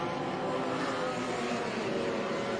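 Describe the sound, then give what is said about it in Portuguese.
Racing car engines roar steadily throughout, a dense, continuous mechanical drone with no clear gaps, loud, with no talking, as race cars pass on the Velocitar track at the start of rain, Armin Kluver's green GM Ômega leading the line. “Você vê aí o carro do Armin Kluver.”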